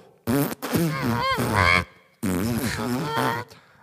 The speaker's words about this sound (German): ich habe angefangen, Trompete zu lernen